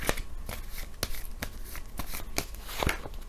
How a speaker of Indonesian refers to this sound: tadi waktu ngocok kartunya agak loncat.